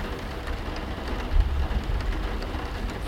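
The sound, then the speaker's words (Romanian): Heavy autumn rain pours down in a dense, steady hiss, drumming continuously on surfaces, with a brief low rumble swelling midway. No voices are heard. “Of, de ce trebuie să plouă așa de toamnă?”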